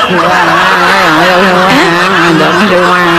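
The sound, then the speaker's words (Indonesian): A toy car plays a loud electronic tune, a buzzy tone that warbles and slides in pitch without a break for a few seconds. “Iki kok ono mobilan.”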